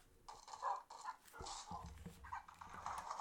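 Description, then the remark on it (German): A video game dog yelps repeatedly as it drowns in water and takes damage, a run of short, fairly quiet whimpering cries in quick succession with a low background rumble, no talking. “Mein Hund ist am Ertrinken.”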